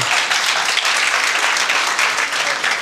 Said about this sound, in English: Give him a round of applause for that.